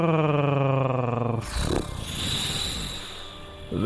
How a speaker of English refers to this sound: loud purrs rumble the island itself, and their snorts set fire to its trees.